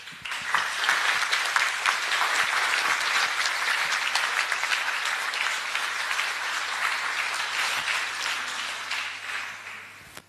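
Sustained audience applause: dense, steady clapping from many hands at a fairly loud, even level for about ten seconds, tapering slightly at the end, with no voices heard.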